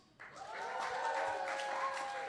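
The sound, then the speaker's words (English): A live audience erupts into sustained cheering and applause, voting for Aragog to move forward in a bracket, with whoops and shouts layered over dense clapping that kicks in abruptly and stays loud and steady throughout. “If you think that Aragog should move forward, make some noise.”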